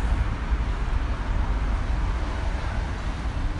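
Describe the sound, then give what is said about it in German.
A steady, dense roar of early-morning traffic on the Sonnenallee in Berlin, a two-lane street with buses and commuter traffic, with a heavy low rumble, unbroken and fairly loud throughout, without distinct horns or voices standing out. “die Sonnenallee in Berlin am frühen Morgen.”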